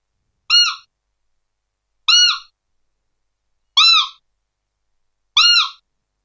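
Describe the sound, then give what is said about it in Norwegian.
Four short, bright, simple piping calls blown on a Demmel game whistle, imitating a roe deer's contact call used when hunting roe bucks, evenly spaced with silence between each, clear with no talking. “Det er bare en kort, enkel uh, eh, pipelyd.”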